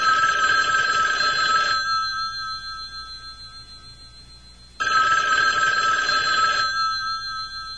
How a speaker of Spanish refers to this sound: Más canciones pasaron hasta que timbró el teléfono.